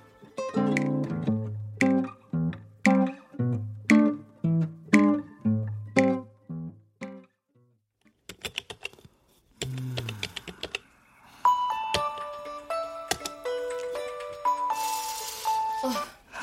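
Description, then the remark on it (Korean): A phone in a downtown café rings with an incoming call, playing a musical ringtone: a quick run of bright, repeated tonal notes in a steady pattern, followed by a shorter electronic melody of higher beeping tones. “이부진, 전화가 걸려온다.”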